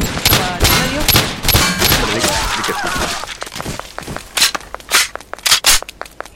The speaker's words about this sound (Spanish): Ese sonido es que recargo la pistola.